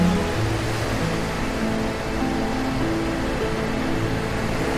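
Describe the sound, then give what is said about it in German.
Ocean surf rushes steadily and fairly loudly in a continuous wash of noise, with no clear separate wave breaks. Faint low humming tones sit underneath, and no one speaks. “Und nun achte auf den Rhythmus der Wellen und höre deren Rauschen.”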